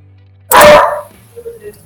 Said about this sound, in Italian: Ringraziamo anche il cane di Nick che è intervenuto per questa eh, parte.